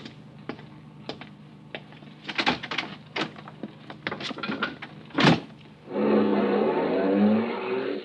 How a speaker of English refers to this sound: I went down and stood in front of the Northern Hotel. Five minutes passed, ten minutes. And then a car drove up. Two men in the front seat, three in the back.